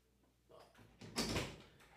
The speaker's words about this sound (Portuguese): Tu quer sair? Quer? Tá bom. Vou abrir a porta.